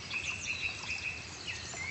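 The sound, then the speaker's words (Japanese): Thin, high chirps and whistled calls repeat over a steady background hiss, like small birds calling in a forest, recorded as-is inside the Afan woodland, with no voices present. “鳥の声は聞こえましたでしょこれはアファンの中の音ですそのままですね”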